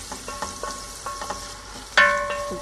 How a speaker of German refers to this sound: Dann nur die Zwiebeln, Margarine, den angehen lassen, weil ihr gerade hört und dann den Wirsing drauf.